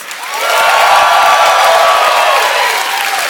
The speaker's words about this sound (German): Ein großer Applaus bitte